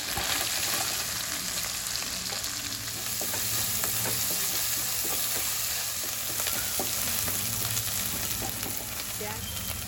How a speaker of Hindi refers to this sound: देखो प्याज अच्छा सा भून गया है